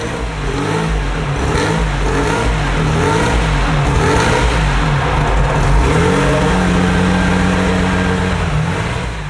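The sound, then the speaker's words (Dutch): A car engine revs loudly, its pitch climbing and falling through several surges before settling into a steady, throaty drone; no one speaks. “Het gaan we allemaal missen straks. Straks is alles stil op de weg.”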